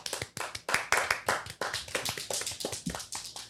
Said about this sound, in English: I, this is like the eighth time this year that we have needed an, an, applause sound effect, and I keep forgetting to add it to the board.